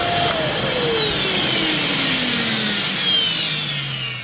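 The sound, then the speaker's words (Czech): A vacuum cleaner whines loudly and steadily, its motor pitch sliding gradually downward as it runs, with no talking over it. “Vysavač Bikers Rádia Doupě. S našimi hosty do poslední kapky. Vysavač.”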